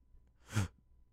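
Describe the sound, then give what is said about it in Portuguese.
One short, breathy sneeze bursts out and quickly fades, with no talking around it; not especially loud. “Saúde.”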